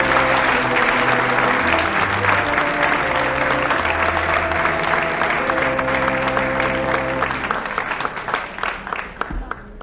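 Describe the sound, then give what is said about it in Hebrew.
Sustained audience applause, a dense wash of many hands clapping with music playing underneath, as the entertainer Shaike Ophir is invited to the stage, then thinning into scattered individual claps near the end. “(מחיאות כפיים)”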